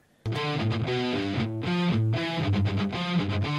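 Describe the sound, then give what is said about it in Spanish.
A heavily distorted electric guitar with a metal tone plays alone, loud, kicking in abruptly and moving through a chugging riff of sustained, gritty notes and chord changes. “A ver, pon la, pon la, la de metal, a ver cómo suena así sola, güey.”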